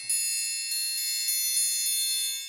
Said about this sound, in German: Meine liebsten Triangel im Moment sind diese Pesicino oder den Barock-Triangel. Der ist aus Bronze. Bronze ist dasselbe Material, wo man Glocken macht. Der klingt unglaublich warm, und groß.